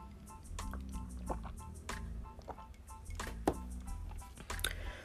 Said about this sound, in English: You know, um, I'm getting a little tongue tied. so let me just take a sip of my water. Excuse me. Give me a moment.